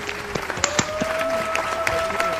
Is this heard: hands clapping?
yes